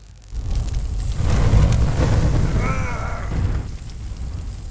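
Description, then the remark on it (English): A loud explosive blast as a man explodes bursts in and roars as a dense, rumbling crackle for about three seconds, with a brief wavering high-pitched tone partway through, then tapers off. “It was the guy beside me that exploded.”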